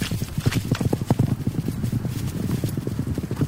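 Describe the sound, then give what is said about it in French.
Many hooves of a caribou herd trample past in a dense, continuous patter, with overlapping thuds and clicks holding a steady, busy rhythm throughout. “C'était les caribous qui passaient au travers de, de notre campement, qu'on les entendait dans l'eau dans les cordes de tente, tout ce qu'on voudra.”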